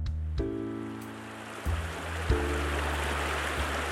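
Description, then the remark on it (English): Steady rushing of the flowing Colorado River fills the scene, continuous, with a low droning hum running beneath it that shifts in pitch a few times. “We have messed with this river so much.”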